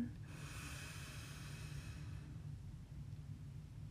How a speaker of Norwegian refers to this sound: Vi kan begynne med å trekke pusten godt inn nesen, helt ned i magen. Holde mens vi teller til tre, og puste ut på fire. Pust inn.